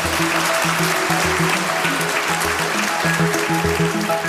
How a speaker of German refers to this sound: schon der Schlussapplaus.